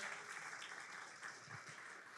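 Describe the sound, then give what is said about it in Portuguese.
A standing church audience applauds the Lord Jesus at the start of a week of prayer, a dense, steady wash of many hands clapping at once that holds an even level throughout without pauses or spoken words. “Aplauda o Senhor Jesus.”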